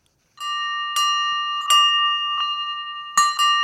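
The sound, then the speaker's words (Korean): A bell rings out in clear, sustained tones, struck about five times at an uneven pace, each strike sharp at first and then humming on with a long, steady resonance. No voices are present. “경건해지는 종소리입니다.”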